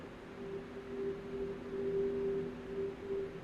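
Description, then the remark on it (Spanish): A thin, sustained whistle-like tone wavers faintly, steady and eerie over a low, murky background hum, with no one speaking. “Un silbido. ¿Alguien ha chiflado?”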